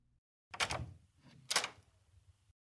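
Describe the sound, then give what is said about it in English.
Several soft knocks on a door by SFPD police, a couple of short muffled bursts about a second apart, each with a brief hollow ring-off, otherwise quiet with no voices. “Then there were several soft knocks on the door.”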